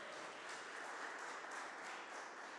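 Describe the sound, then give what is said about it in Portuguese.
A large crowd claps loudly and steadily for Jesus, a dense, continuous wash of hands that holds at full strength for the whole few seconds, with no voices standing out. “Aplauda Jesus bem alto, gente.”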